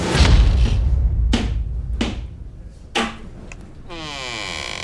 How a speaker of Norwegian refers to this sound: Midt i en tåke av sorg etter tapet av den dødfødte og lykkerus over det lille … som gurgler og væræler, slår en tung støvel opp døra.